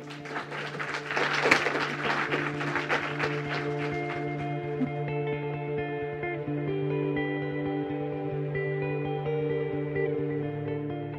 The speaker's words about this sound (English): Um, can we have a round of applause for our panel?